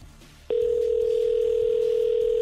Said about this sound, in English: now it's time to call our winner. All right. Here we go. Come on, pick up. Come on.